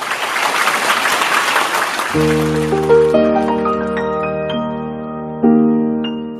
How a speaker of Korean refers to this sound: 자, 그럼 조금 큰 박수로 맞이해 주시기 바랍니다.